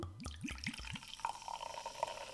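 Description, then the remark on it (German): A drink is poured into a glass: four quick, rising glugs from the bottle, then a steady, higher-pitched trickle as the glass fills. No one speaks. “Ich schenke wieder i.”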